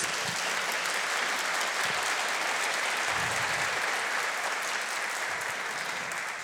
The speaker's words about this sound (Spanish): Denle un fuerte aplauso al Señor entonces.